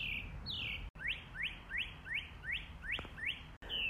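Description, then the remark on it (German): A bird sings, repeating a series of bright, rising whistled notes in a steady rhythm over a low background rumble, growing louder, with no voices present. “Ich weiß gar nicht, was für ein Vogel ist.”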